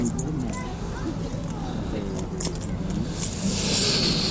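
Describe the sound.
Coins jingle and clink in a steady metallic rattle as money spills out, close by, with murmured voices and a low background hum underneath.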